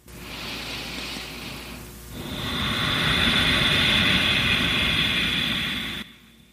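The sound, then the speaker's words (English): A yoga "ocean breath": a soft hissing inhale through the nose is followed by a short pause, then a longer, louder exhale with a deep vibration in the back of the throat, a rushing rasp like ocean surf. Nobody speaks. “Um, kind of like an ocean breath or a wave, and that is an inhale through the nose and then an exhale where you almost create kind of a deep vibration in the back of your throat.”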